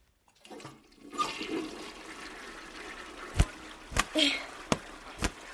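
A toilet flushes in a bathroom, a steady rush of draining water that swells after a quiet start, with several sharp clicks or knocks cutting through near the end.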